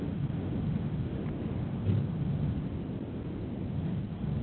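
A steady, low roar of wind blowing, a continuous rumbling rush that holds at an even loudness throughout with no voices or other distinct sounds.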